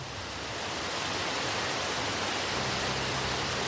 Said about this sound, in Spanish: El chapoteo de las aguas comienza a murmurar una melodía diferente como un cómplice que no puede contener la carcajada. ¿Era eso? ¿O era acaso la cascada al borde del acantilado?